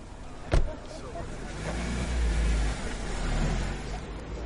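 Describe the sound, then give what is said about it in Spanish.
A taxi's engine rumbles low and steady over street noise as it arrives and stops beside a group of young people gathered by a wall on a street in a suburban city neighbourhood. A single sharp thump comes early, then the motor swells louder as the car pulls away. “Un taxi llega y se detiene cerca del grupo.”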